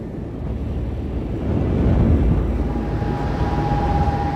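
Strong, steady wind of a dust storm over farm fields near Wolgast, made worse by a prolonged drought, roars and buffets the microphone in a continuous low rumble, swelling slightly partway through, with no voices present.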